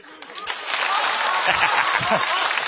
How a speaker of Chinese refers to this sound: 来，我们掌声欢迎他一个人说一段对口相声。